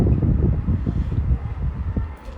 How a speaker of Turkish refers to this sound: Rüzgar sesi gibi bir ses geliyor. Evet vantilatör bunu kapatayım öyleyse size gelmesin.